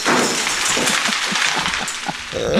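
A board game tumbles over, its pieces and box spilling in a loud, continuous rattling clatter, with a string of quick knocks and a final rustling scrape, and no voices.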